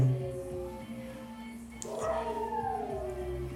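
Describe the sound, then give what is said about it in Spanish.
Dogs in the background let out long, wavering howls and whines that rise in pitch partway through, continuous rather than clipped barks, fairly faint and steady throughout. “espero que, creo que se van a ir muchos perros de fondo, pero bueno, uno que le puede hacer, ¿no?”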